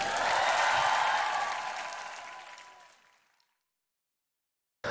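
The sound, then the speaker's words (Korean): An audience breaks into loud, sustained applause offered to God, then it gradually thins and fades out over about three seconds, followed by silence. “승리 주신 하나님께 승리의 하나님께 큰 박수를 한번 올려드립니다”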